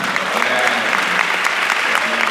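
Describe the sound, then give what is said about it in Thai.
An audience breaks into steady, dense applause for a speaker, many hands clapping in a loud, even wash that holds for the whole couple of seconds without fading. “แต่ว่าคนที่พูดแผนดีครับ เดี๋ยวขอเสียงปรบมือให้ท่านหน่อยไหมครับ”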